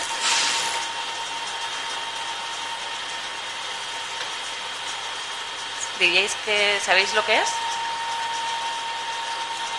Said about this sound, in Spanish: Es un cráneo de ratón que lo están lijando para hacer. Empezamos otra vez a pulir para hacer una muestra y analizarlo en el, microscopio.